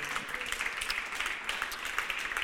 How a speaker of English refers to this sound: Come on, give your pastors one more big hand clap this morning. Hallelujah.